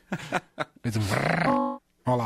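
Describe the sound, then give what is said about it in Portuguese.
A garbled, buzzy robotic-sounding voice from a glitching call connection warbles for about a second, ending in a flat mechanical tone. A laugh and a brief spoken phrase come just before it. “Android robô, é, voz de robô.”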